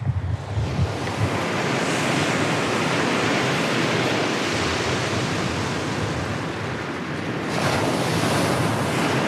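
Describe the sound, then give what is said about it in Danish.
Ocean waves crash continuously onto a beach at a surfing spot, around 10 o'clock, in a loud, dense roar, with wind gusting across the microphone and the surf swelling again near the end. No one speaks. “Nu er klokken øh, lidt i 10, og øh, jeg er lige kommet op af vandet efter at have plasket rundt på et surfboard i halvanden time eller sådan noget,”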